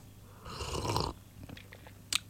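A breathy slurp lasting about half a second as someone sips morning coffee, followed by faint mouth clicks and a short sharp tap near the end. No one speaks.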